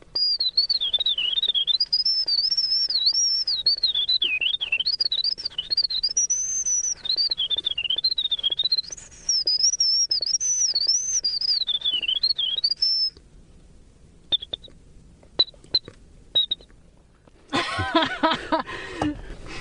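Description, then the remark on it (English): A man whistles an imitation of a winter wren's song: a long, rapid, fluttering warble, loud for about thirteen seconds, then a few short chirps, ending in a brief noisy burst. “The most complex song he whistles is that of the winter wren, which took him over six months to perfect.”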